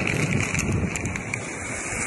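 Steady wind buffeting the microphone over a constant wash of surf on a rocky beach, where sea lettuce is gathered among protruding rocks covered with mussels, a loud, unbroken roar with no voices.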